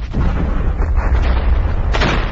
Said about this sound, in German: Hier, was wir hier gerade gehört haben, das ist der Ausbruch äh, im Dezember 2019 in Neuseeland.